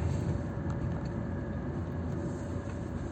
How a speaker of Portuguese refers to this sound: Nossa senhora, velho, que bosta o caminhão de lixo ficou parado aí no meio da rua praticamente, é foda.